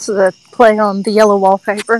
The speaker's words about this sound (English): See, with you being outside and hearing the crickets in the background, it makes it that much creepier.